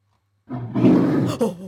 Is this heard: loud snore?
no